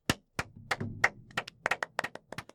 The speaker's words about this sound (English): But, uh, but give him a round of applause.